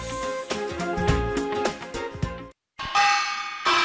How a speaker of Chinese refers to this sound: 在云梦皮影国家非遗传承基地，随着一阵急促的敲锣声。由云梦县文化馆组织的皮影戏惠民展演第一场正式开始。